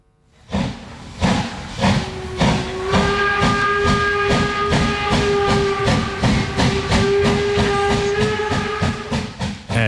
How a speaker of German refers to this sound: Dampflocke übt eine grosse Faszination aus. Auf Kind, aber auch viele Erwachsene. Im Zürcher Oberland zwischen Bauma und Hivil fahren regelmäßig Dampfzüge und im letzten Herbst sogar mehrmals in der Woche.